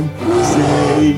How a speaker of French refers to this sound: Faites voir Mais c'est un chat Un chat sauvage C'est vrai qu'il est gros pour un chat classique. C'est formidable Une espèce rarissime